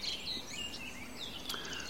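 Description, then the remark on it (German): A corn bunting sings faintly in the background, thin high jangling notes rising over a steady hiss of outdoor background noise, with no one talking. “Ähm, es ist die Grauammer.”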